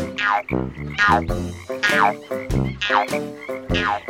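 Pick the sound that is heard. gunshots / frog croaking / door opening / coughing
frog croaking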